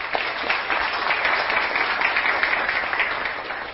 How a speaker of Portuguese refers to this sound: Uma salva de palmas.